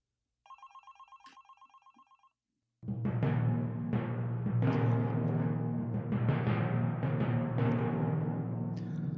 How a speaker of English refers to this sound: And oh, I hear the phone ringing. Stand by.